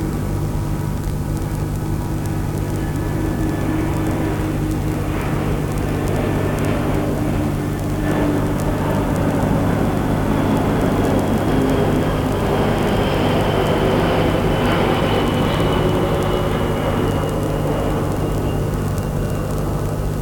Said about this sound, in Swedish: så känns det som att de där flygplanen när de kommer förbi att han kommer aldrig hinna till flygplatsen när han låter så mycket redan här. Han kommer landa plask mitt i klostret.